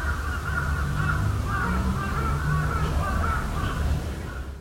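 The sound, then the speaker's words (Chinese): A flock of crows caws nonstop, many harsh, rasping calls overlapping into a dense, steady chorus that stays loud for the whole few seconds, with no one speaking. “窗外的乌鸦也一直不停的叫，很多只，很大声，大概是这样子。”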